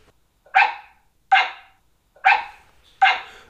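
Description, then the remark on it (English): A dog barks four times in reply to a spoken question, in a slow, evenly spaced series, each bark sharp and fairly loud, with short silences between and no talking. “I'll talk about special handling equipment for dogs. Hey, Abby, what special handling equipment do you require?”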